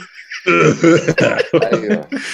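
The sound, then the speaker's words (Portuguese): A run of harsh, throaty coughs in quick succession, fairly loud, with a strained voiced rasp running through the bursts and no talking over them. “Não, eu tossi ali miseravelmente, né, cara?”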